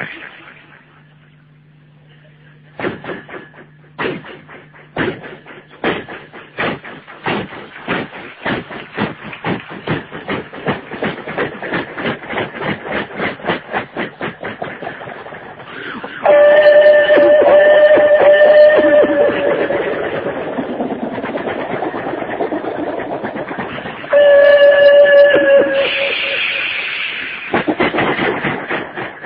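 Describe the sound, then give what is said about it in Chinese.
A voice performs a kouji (vocal mimicry) routine of a train pulling out of a station: a low hum gives way to rhythmic chugging puffs that speed up into a fast steady rumble, broken by two loud, sustained whistle blasts. “这无情的火车向站外驶动了，来段口技，火车。”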